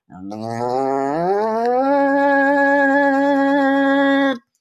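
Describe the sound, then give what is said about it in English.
A voice imitates a chainsaw with a loud, buzzing drone that climbs in pitch like an engine revving up, then holds steady for about four seconds before cutting off abruptly. “Originally, I picked this topic because uh, there was somebody using a chainsaw outside my room, but they since stopped. I was hoping to be able to use that, but sort of like,”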